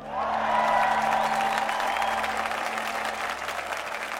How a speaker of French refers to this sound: C'est alors que nos amis et nos familles se sont mis à applaudir à tout rompre.